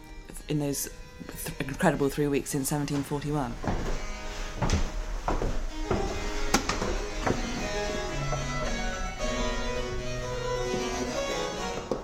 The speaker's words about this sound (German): Unterwegs im Handel House Museum. Die Holzstufen, die unter unseren Füßen knarren, sollen noch Original Händel sein.